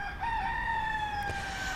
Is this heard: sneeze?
no